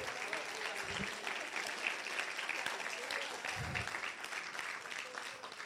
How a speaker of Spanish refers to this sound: Den un aplauso al Señor, un aplauso al Señor.